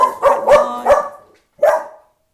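Dogs bark in a quick run of three sharp woofs, then one more after a short pause, outside a house as people run with them. The barking is fairly loud and clear, with no talking.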